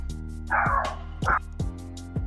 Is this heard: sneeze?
no